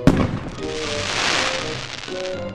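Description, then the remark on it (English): Fireworks explode at night with a sharp, loud bang, lighting the night sky with colour, followed by a steady wash of crackling and sizzling that fills the rest of the moment, with faint whistling tones drifting through. “How do Fireworks explode into Smiley Faces?”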